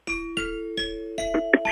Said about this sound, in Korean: 아, 딩동댕 요거 제가 웬만하면 잘 안 치는데 …의 가요 광장에서 목걸이를 걸어 드리도록 하겠습니다.